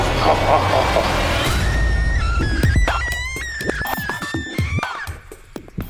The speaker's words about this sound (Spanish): Ya, eh, qué de nervios ese grito.